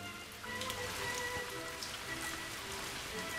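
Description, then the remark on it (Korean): Steady rain falls continuously, a dense hiss of drops pattering on a surface with occasional brighter splashes, even in loudness, with no voices. “비를 계속 맞은 강아지 똥은 온몸이 잘디잘게 부서졌어요.”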